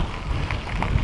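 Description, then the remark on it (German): Steady wind blowing hard across open fields along farm paths, between maize and bean fields, on a sunny day with a few clouds, with a constant low rumble and gusty buffeting against the microphone throughout, with no voices. “da ist gleich schön windig.”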